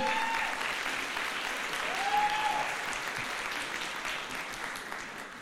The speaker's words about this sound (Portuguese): Por favor, dê uma salva de palmas a esse time maravilhoso, o FIT, hoje.